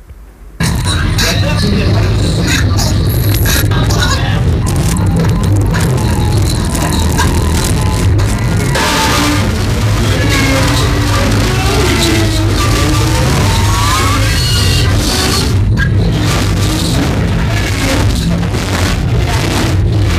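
A 24-second fragment from a Japanese experimental electronic noise album: a dense, abrasive wall of harsh noise plays continuously at high volume, with crackling textures, grinding low rumble and shifting warbling tones, then cuts off abruptly.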